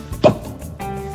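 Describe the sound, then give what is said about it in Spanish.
A single sharp pop as the cork bursts free from a champagne bottle being opened, loud and quick, followed by a low, steady background murmur. “Así que vámonos, chicos, a parar y vámonos a abrir esta botella de champaña”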